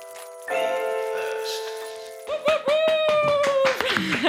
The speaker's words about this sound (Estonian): pange käed kokku, tehke kõvasti lärmi